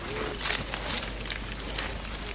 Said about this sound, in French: Je marche sur un petit chemin de campagne. Tout est calme, mais le vent d'automne est tout de même un peu frais.